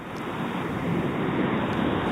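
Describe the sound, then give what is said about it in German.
Steady, rushing driving noise from a caller's vehicle, heard over a phone line during a call-in: a dense, even roar with a low rumble underneath and no voices, holding constant for the whole two seconds. “Ja, da sendet jemand Fahrgeräusche.”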